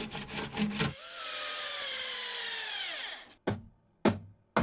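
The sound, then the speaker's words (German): Someone handles a piece of wood, a natural material: a few quick scraping strokes, a long squeaky rub that slowly drops in pitch, then three sharp wooden knocks with short pauses between. “Ich nehme hier dieses Holz, äh, ist auch Natur, ne?”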